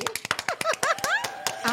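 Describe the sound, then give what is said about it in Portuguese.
Rapid, irregular clapping from a few people, sharp bright slaps at a brisk pace, with excited voices and exclamations rising over the applause. The host calls on the production crew to applaud a female guest. “Palmas pra ela, produção!”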